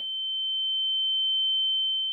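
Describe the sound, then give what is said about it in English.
A steady, high-pitched pure tone rings continuously for about two seconds, like the whine of tinnitus, holding one pitch at moderate loudness with no voices or other sounds. “From the Latin tenere, tinnitus really means a ringing.”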